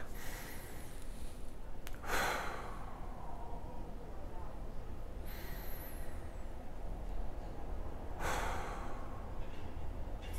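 A person demonstrates a slow, relaxing breathing technique: three deliberate, airy breaths drawn in and let out, spaced a few seconds apart over a quiet background, with no talking.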